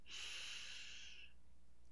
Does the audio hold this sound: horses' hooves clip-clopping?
no